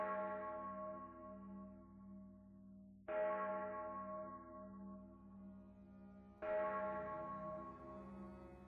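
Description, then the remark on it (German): A large church bell tolls three slow, heavy strikes about three seconds apart through the evening air, each rich ringing tone swelling and fading into the next with no voices present. “Rauchschwaden stiegen von dort empor und die Glocke Schaljas hämmerte ununterbrochen durch die Abendluft.”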